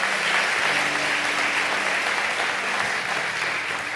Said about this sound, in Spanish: Aplauda fuerte al Señor. Gloria al Señor.